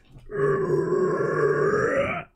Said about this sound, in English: The elite lets out a long growl, signaling the release of the super elites.